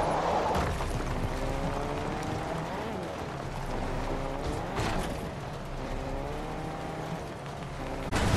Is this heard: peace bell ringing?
no